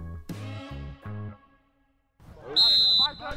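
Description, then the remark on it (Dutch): A few basketball bounces echo, then after a brief pause a loud, shrill referee's whistle blows one sustained blast, about half a second long, over busy court and crowd noise. “Ja, de scheidsrechters fluiten.”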